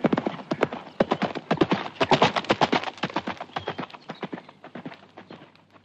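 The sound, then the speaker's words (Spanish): Rapid, sharp hoof clip-clops from the horse Rocinante on a hard surface, ridden out through the back gate of a corral into the countryside before daybreak on a hot July morning, a dense run of crisp knocks in an uneven galloping rhythm that gradually grows fainter over several seconds. “una mañana, antes del día, que era uno de los calurosos del mes de julio, se armó de todas sus armas, subió sobre Rocinante, embrazó su adarga, tomó su lanza y por la puerta falsa de un corral salió al campo.”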